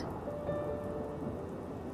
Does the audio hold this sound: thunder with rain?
yes